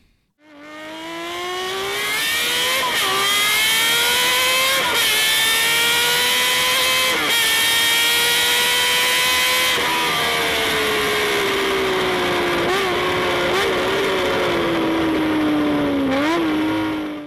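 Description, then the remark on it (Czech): A six-cylinder Honda CBX 1000 motorcycle engine revs continuously, its smooth, high-pitched howl rising and dipping through several throttle blips with no one speaking. “Jak jsem si pořídil šestiválec Honda CBX 1000”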